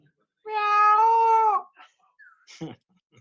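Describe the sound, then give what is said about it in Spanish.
A person imitates a cat with one loud, long, drawn-out meow lasting about a second, followed by a few short, quieter vocal sounds. “¿Has visto el vídeo este de, un señor que tiene un gato en una piscina y el gato hace.”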